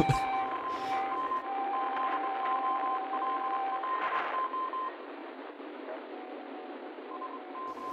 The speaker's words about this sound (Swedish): Det kom ett album för några veckor sedan som eh, inleddes med eh, ett spår med bara morsekod.